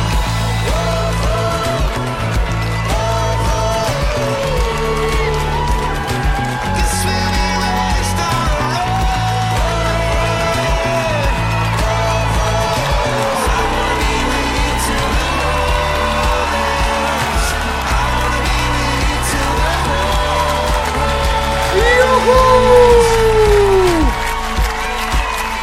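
A live concert recording from the closing show of a world tour in Buenos Aires: loud music with sustained tones and a steady rhythm fills the whole stretch, while a large crowd cheers and shouts along beneath it, swelling louder near the end.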